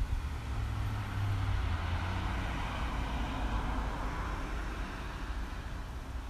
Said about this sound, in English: It is such a beautiful night. I decided to do my show outside, which inevitably will lead to traffic.